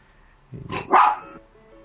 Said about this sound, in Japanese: ごめんなさい犬が 元気ですね隣の犬が泣くとさ泣き出すのあ、そうなんですか。はい、反応した、ちょっと、隣で犬が吠えちゃったんですね。